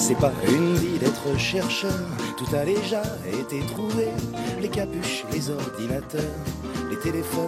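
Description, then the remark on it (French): A solo voice sings a lively, wordy number from the French musical Le Soldat Rose over a full instrumental backing, steady throughout, with rapid phrases running continuously. “Je connaissais pas la chanson pour le coup.”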